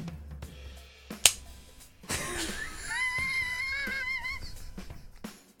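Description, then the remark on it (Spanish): A beer can or bottle opening: one sharp click, then a rushing hiss that lingers for a few seconds while thin, wavering high tones sound over it. “Estoy abriendo una cerveza, lo siento.”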